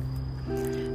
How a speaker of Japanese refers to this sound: はいスズムシの鳴き声が BGM として、えー、かかってる深夜皆様はどうお過ごしでしょうか